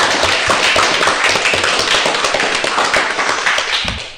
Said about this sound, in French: On va la laisser prendre sa respiration et puis on va l'applaudir parce qu'elle va quand même chanter là en direct maintenant sur Jido. On l'applaudit Allez.